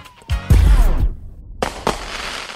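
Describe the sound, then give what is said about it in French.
Fireworks explode in quick succession, a deep booming burst followed by crackling bangs and a couple of sharp sizzling pops, loud with no voices. “Toujours aux États-Unis, il y a plus de 80 000 feux d'artifice qui se déclenchent à Las Vegas pour un public de plus de 300 000 personnes chaque année le 31 décembre.”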